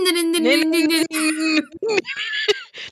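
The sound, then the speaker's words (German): A voice imitates a frog ringtone with a run of high, croaky, warbling sung syllables, fairly loud, ending in a few breathy, laugh-like bursts. “früher dieser Frosch da”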